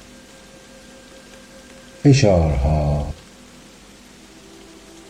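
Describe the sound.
Steady, soft rain hisses evenly in the background throughout, with a single short spoken phrase from a voice rising briefly over it midway.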